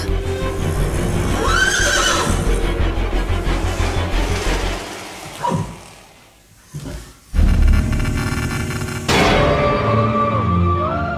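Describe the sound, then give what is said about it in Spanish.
A horse heard from afar whinnies in drawn-out, wavering bursts that sound almost like sinister laughter, rising and falling over a dense rumbling background, with a break in the middle before another neigh near the end. “la gente que vive en el lugar sigue escuchando a un caballo que a lo lejos pareciera reírse con maldad.”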